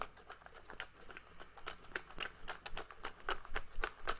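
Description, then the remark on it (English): Papery rustling and light clattering as paper slips with words on them are shaken around inside a cup, a steady run of quick, crisp rattles, growing a little louder toward the end. “Um, I've got all the letters, uh, all the words in the cup. Shuffling the cup.”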